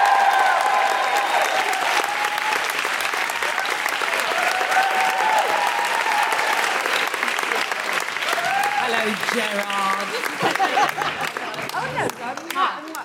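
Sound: audience applause and cheering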